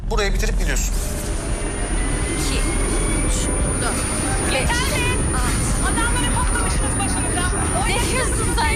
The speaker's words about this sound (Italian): E poi c'è un paesaggio sonoro molto particolare, elicotteri, sirene della polizia, urla, suoni e rumori che intervengono bruscamente di continuo nella quotidianità e nel tentativo faticoso di condurre un'esistenza ordinaria.